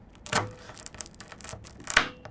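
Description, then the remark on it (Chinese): A knife crunches through a crisp canelé crust in a series of sharp, dry crackles, with two louder snaps standing out among softer ticking crunches; no one speaks. “他现在就是要切给大家听，看有没有那声音。”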